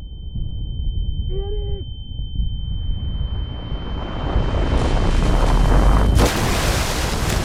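Cannon fire in a naval battle off Öland between the Swedish fleet, led by the flagship Äpplet, and the Danes, with a cannonball from the Danish ship Sofia Amalia striking near an oak deck: a heavy, continuous low rumble builds under a thin, steady ringing tone, a brief shout cuts through early, and a sharp blast hits near the end.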